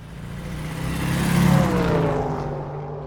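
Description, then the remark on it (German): A car engine revs up loudly and speeds off, its roar swelling to a peak and then fading as the vehicle pulls away. “steig in den Wagen, schnell!”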